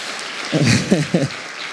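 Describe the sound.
A steady wash of audience applause for two friends asked to stand up, a dense crackling hiss that lasts the whole moment, with a man's voice speaking briefly over it in short bursts.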